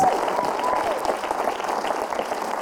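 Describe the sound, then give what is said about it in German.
A crowd in Freiburg applauds the teams steadily for a few seconds, dense overlapping clapping with a brief whistle and scattered cheering mixed in near the start. “Ja, ihr könnt es ruhig mal laut machen hier für die ganzen Teams.”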